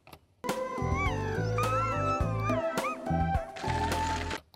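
Dogs whine and howl in drawn-out, wavering cries, loud, over a steady low pulsing backdrop, running nearly nonstop for about four seconds before cutting off. It is the audio track of a video clip being edited.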